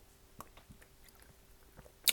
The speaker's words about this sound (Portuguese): Pausa para beber água, peço desculpa.